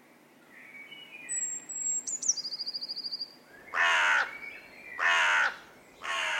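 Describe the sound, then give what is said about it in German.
Three loud, harsh caws, evenly spaced, from a group of about a dozen crows gathered on a field north of Munich, pecking into the damp, dark brown soil. Softer chirps and a thin trilling call from other birds in the background come before the caws. “Eine Gruppe Krähen versammelt sich auf einem Feld im Norden von München.”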